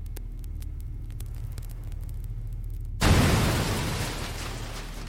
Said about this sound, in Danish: Pengeskabet blev sprængt åben med et voldsomt brag, så sædler og mønter fløj ham om ørerne. Barret var højt nok til at vække naboerne og alarmere politiet,